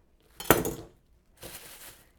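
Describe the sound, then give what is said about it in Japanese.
A kitchen knife whacks down on a cucumber on a cutting board with a sharp smack, smashing it for a dish, followed a moment later by a softer crunching scrape, with no one talking. “しかも叩ききれなかったところはもう普通に切るっていう雑な料理ですけどいいんですそれでも断面はこう砕けてるので味は染み込みやすいでしょう”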